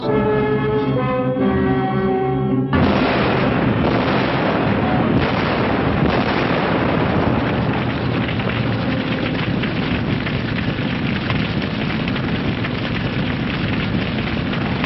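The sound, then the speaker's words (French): A sustained tonal blare gives way to a sudden, loud explosion at a depot that turns into a long roaring, crackling rumble with repeated bursts, filling the whole scene. “J'ai une explosion au dépôt.”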